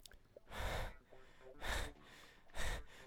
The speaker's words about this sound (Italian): Fammi sentire il fiatone oggi.